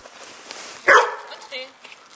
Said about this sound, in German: Schauen Sie mal, der Hund, der kläfft mich jetzt an, der, das bin ich, ja, und schnuppert an allen Personen, die da sind.